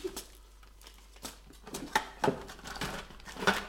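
Packaging rustles and crinkles in a steady run of irregular, papery bursts, with a few sharper crackles standing out. No one speaks.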